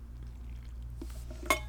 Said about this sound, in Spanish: Entonces, bueno, me voy a tomar un traguito de agua.